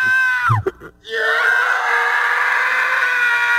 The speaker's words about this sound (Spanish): Ahí está el chiquito. ¿Es el grito del chiquito? Es el grito del chiquito. sí, le dolió, ¿eh?